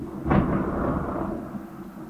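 A single deep rumble of thunder breaks in sharply during rainfall, then rolls on and slowly fades, loud, with no voices.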